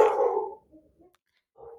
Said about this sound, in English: sorry dogs are going nuts uh is that there? sorry one second it happens I'll put in some elevator music. Hey! Stop it now! Stop! No mas! Go lay down, man. Go lay down. Go lay down.